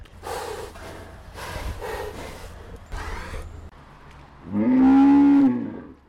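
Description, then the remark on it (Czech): A forest buffalo in a fenced enclosure gives several breathy, noisy snorts in quick succession, then a louder, low, drawn-out grunting bellow near the end, with no voices. “Slyším takové menší funění, zkusím se maličko přiblížit.”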